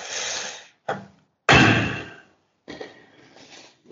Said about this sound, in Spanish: Pues salgo de la casa. Incluso abro la puerta de, malos modos. Imagino que golpea contra, contra la misma pared, o qué sé, es una puerta vieja.